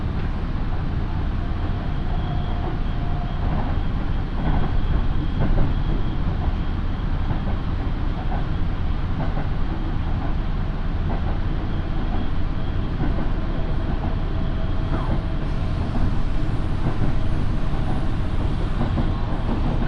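A local train on the Minobu Line, running from Shibakawa to Minobu, runs steadily along the line, a loud continuous rumble and roar of wheels on rails with faint rhythmic clatter and occasional squeaks, with no voices.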